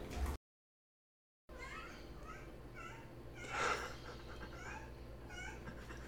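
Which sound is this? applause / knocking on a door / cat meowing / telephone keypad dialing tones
cat meowing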